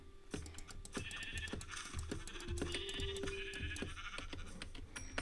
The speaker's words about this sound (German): Wobei, ja, das dritte Schaf.